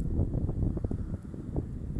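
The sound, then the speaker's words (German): Steady outdoor wind by the ocean rumbles and buffets, a low, continuous roar with faint gusty swells and soft rustling, and no voices. “Verbunden sein mit dem Wind im Gesicht, der Sonne in den Augen”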